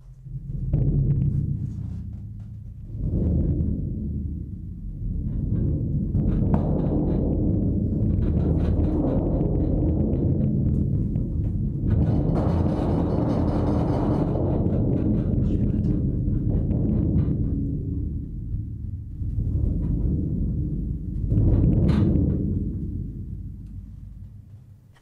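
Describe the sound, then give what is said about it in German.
A large drum rolls continuously to imitate thunder, a deep rumbling that swells in waves, bursts into a louder crash midway, then rumbles on before fading out at the end. No voices. “Der wird erstmal wie in der realen Welt langsam anfangen und dann immer lauter, bis es zur Explosion kommt und dann wieder abklingen.”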